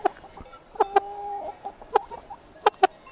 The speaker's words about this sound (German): Und dann hast du ja auch noch deine WG-Mitbewohner Hannelore, Lotte und Nanni, deine drei Hühner.